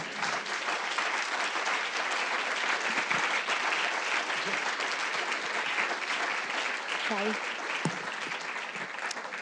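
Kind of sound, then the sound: crowd, audience applause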